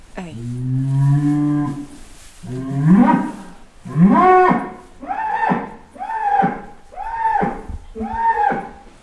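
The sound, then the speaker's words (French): A cow guarding its herd lows repeatedly because a stranger is present, starting with two long drawn-out moos and then a run of shorter, rhythmic calls, loud with no talking over them. “Non, c'est un bruit qui signifie qu'il y a quelqu'un qui ne connaît pas et que c'est comme un chien de garde en fait.”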